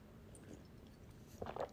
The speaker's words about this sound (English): sipping my tea, it's first sip I took this whole time.